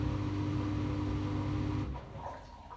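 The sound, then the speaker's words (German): A washing machine, just started with its timer and start buttons, runs its wash cycle, pumping in water, with a steady low motor hum and churning rumble that eases off and quiets toward the end. “Genau, jetzt hört man, wie die Waschmaschine wäscht.”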